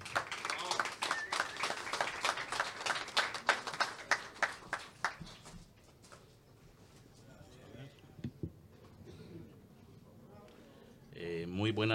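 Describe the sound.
A small audience in Alajuela claps steadily for about five seconds to welcome a speaker to a reading, the applause thinning out and fading into near silence before a voice begins speaking at the very end.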